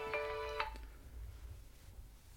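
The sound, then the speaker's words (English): A phone ringtone for an incoming call plays a short, bright electronic melody of a few harmonic notes, then quickly fades, leaving low background rumble for the rest of the moment. No one speaks. “Oh, that's my phone ringing.”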